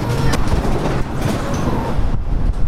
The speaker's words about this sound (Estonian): lahkume kaunist Tivoli osast ja astume lärmakasse Tivolisse, kus on putkad, kus saab õlut juua ja täpsust lasta. siin algavad atraktsioonid, kuulete, siin sõidabki üks